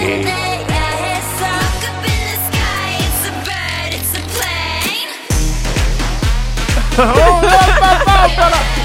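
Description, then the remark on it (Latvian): The most popular song of a K-pop girl group plays loud, with punchy regular beats, heavy bass and layered vocal melodies, briefly thinning out midway before the full beat kicks back in. “tā ir K-pop grupa”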